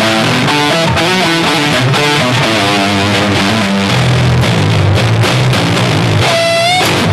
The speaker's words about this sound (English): after the cab block, I'll add a I'll add a distortion, which is like you can't do that in a real rig, but it sounds like.